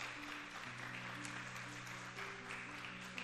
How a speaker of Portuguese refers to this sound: Se você crê nisso, aplauda o Senhor, porque Ele é bom.